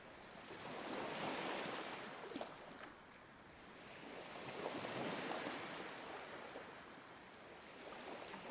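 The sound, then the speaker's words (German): Steady ocean surf rolls in soft, broad washes, swelling and easing in slow waves with a constant hiss of foam. No voices, just the continuous rush of water at moderate volume. “Die geführte Meditation hilft dir mit Meeresrauschen beim Einschlafen.”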